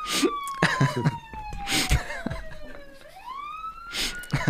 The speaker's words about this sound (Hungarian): Hallod? A sziréna. Itt vannak. A sziréna. Megint.